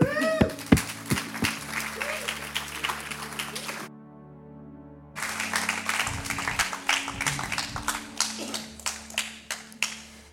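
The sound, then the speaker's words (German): An audience breaks into steady applause for a speaker about to give a message, many hands clapping in a dense, crackling patter that briefly cuts out partway through, then resumes just as strongly to the end. “Mega herzlichen Applaus für dich.”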